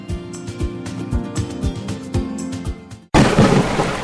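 A steady rhythmic music bed cuts off abruptly, replaced by a sudden, loud crash of thunder and stormy noise that rumbles on for about a second.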